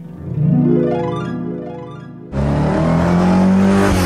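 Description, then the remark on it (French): A car engine accelerates, its pitch climbing steadily, then roars louder and rougher after a brief shift, holding a strong revving drone to the end. No voices. “Oh, il arrive, on sent accélérer, accélérer”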